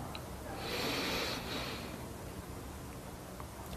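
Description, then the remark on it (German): A single slow, deep breath drawn in through the nose as the first deep breath of a guided breathing exercise, a soft airy hiss that swells for about a second, then fades into quiet room tone. No talking. “Wir nehmen den ersten tiefen Atemzug und atmen ein.”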